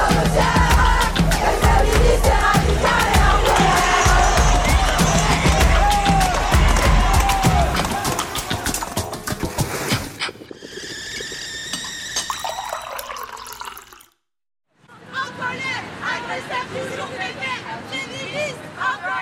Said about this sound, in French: je suis allée à la manifestation contre les violences sexistes et sexuelles organisée par nous toutes tous les ans au mois de novembre.